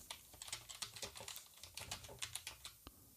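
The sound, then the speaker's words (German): Quick typing on a computer keyboard as someone writes a short recommendation, a steady patter of light key clicks with brief pauses, ending with one sharper keystroke; no one speaks. “Ich schreibe noch eben darunter absolute Hörempfehlung.”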